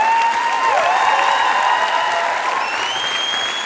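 An audience claps steadily and loudly, a dense wash of applause with scattered cheers and whoops rising above it, sustained throughout without any talking.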